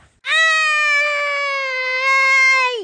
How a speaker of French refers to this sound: Pendant que la bête hurle de douleur, il en profite pour s'enfuir.